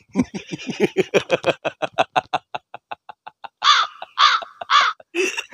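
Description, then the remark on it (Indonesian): A crow sound effect played by a DJ: a rapid run of short, clipped crow calls slows and fades, then three loud, harsh caws ring out, followed by one more. No one speaks. “kasih gagak gagak DJ”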